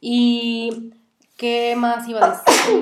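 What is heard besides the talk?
sneeze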